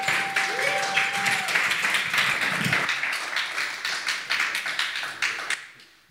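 An audience applauds, many hands clapping in a dense, steady patter for about five seconds before it cuts off quickly, with a faint thin tone sounding briefly near the start.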